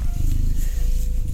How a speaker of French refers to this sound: Eh ben, ça ronron. T'as des chats, toi